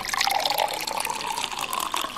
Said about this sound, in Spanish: Agarro una botella y empiezo a servir el agua